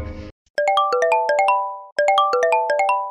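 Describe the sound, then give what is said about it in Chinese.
A home telephone rings at midnight with an electronic melodic ringtone: two loud bursts of quick, bright, evenly spaced tones separated by a short pause, right after a brief snippet of voice. “那吼有一天吼半夜吼十二点吼电话就响，”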